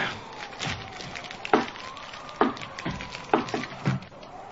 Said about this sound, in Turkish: Dur şu ateşe birkaç odun daha atayım da